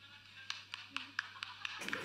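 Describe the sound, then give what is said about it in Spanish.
Thin, half-hearted applause for a magician: about eight faint, evenly spaced claps at a slow steady pace, closing with a short burst of scattered noise. “Ahora viene el aplauso.”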